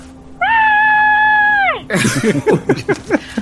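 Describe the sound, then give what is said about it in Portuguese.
A person acts out a scream of fright on opening a scribbled-on door: one loud, sustained, steady-pitched shriek lasting over a second that drops off sharply, then gives way to rapid, animated talking. “esse porta, sabe, rabiscada e grito.”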